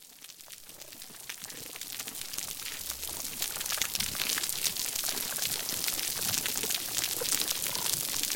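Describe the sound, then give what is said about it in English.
Dense, constant crackling of hundreds of snapping shrimp, a steady sizzle of tiny clicks like frying bacon filling the background underwater, growing slightly louder over time with no voices. “the first thing that you hear is this constant crackling in the background. It sounds a little bit like frying bacon, and that's that's actually the sounds of snapping shrimp.”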